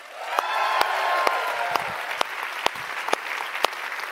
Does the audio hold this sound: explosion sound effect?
no